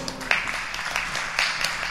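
A crowd claps steadily in dense, overlapping applause, with a few sharper claps standing out and a faint murmur of voices beneath.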